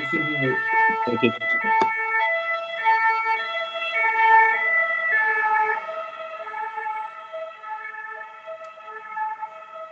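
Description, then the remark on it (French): Emergency vehicle sirens passing outside in Paris wail steadily, their tones rising and falling, while a voice briefly speaks at the very start. “En ce moment, attends, il y a des sirènes qui passent là.”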